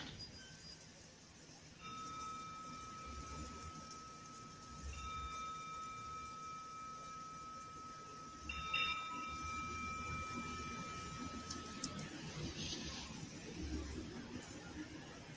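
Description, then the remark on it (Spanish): A meditation bell is struck three times at a slow, even pace during a mindfulness practice, each clear metallic tone hanging in the air and slowly fading away over faint background hiss. “Después de esta pequeña pausa y después de esta práctica que hicimos, revisando una vez más cómo te sientes, qué notas ahora en la mente, en el cuerpo, en el corazón, y escuchando con conciencia el sonido de la campana.”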